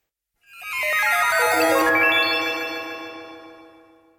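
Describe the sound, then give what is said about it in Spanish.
A bright electronic chime jingle, composed by Parmigiani for Roissy Charles de Gaulle airport in Paris, of several stacked, overlapping tones that rise and fall in a short melodic phrase, then ring out and slowly fade, with no voices. “Uno de los más conocidos es el que hizo para el aeropuerto Roissy, en Charles de Gaulle de París, que vamos a escuchar a continuación.”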